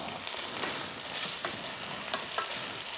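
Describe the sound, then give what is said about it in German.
A pan of ingredients sizzles and crackles steadily as they simmer, a dense hissing bed broken by small pops and occasional scraping stirs. No one speaks. “Jo, hier köcheln meine, meine Zutaten.”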